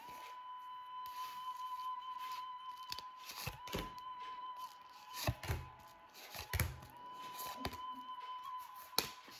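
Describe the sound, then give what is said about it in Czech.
Tarot cards falling from a deck as they are shuffled for a reading for the year 2023, with the Ace of Cups drawn: a string of sharp, papery slaps and flicks at irregular intervals, a few louder than the rest, over a faint steady hum with no talking. “Už padají karty z balíčka.”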